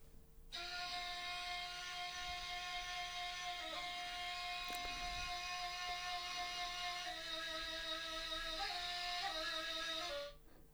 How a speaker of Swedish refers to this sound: Och, det, och den tredje är ju en eh, nej flöjt mm. från Iran då.